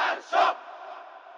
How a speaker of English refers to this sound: And in 1979, Iranians reached a breaking point and revolted against the Shah. The crowd shouted death to the Shah.